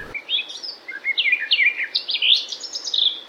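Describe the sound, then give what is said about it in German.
A garden warbler sings a rapid, continuous warbling phrase of mellow, bubbling notes that rise and fall without pause, moderately loud and alone with no talking. “Macht natürlich keiner und deswegen weiß auch keiner, wie die Gartengrasmücke aussieht.”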